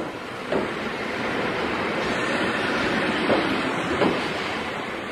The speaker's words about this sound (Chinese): 火车才进站